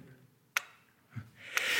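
An old grandfather clock in a living room ticks slowly, two crisp ticks about a second apart, with a soft low knock between them and a rising hiss at the end.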